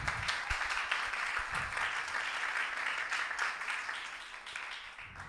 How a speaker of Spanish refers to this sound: Apláudele si le va a aplaudir.